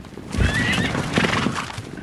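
A thundering herd of wild mustangs whinny and neigh over a steady rumble of many pounding hooves, loud and on the move across sagebrush-covered high desert badlands in northern Wyoming, with no one speaking.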